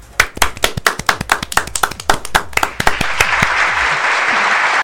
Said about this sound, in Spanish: Fuerte de aplauso, por favor.